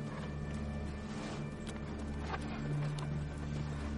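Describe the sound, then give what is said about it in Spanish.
Horse hooves clip-clop at an uneven pace as the Mountain rides on horseback, over a steady, busy background murmur and hum, with no one speaking. “La montaña sigue a caballo.”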